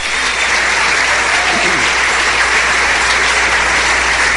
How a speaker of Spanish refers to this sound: Denle un aplauso bien fuerte al Rey. Ahora.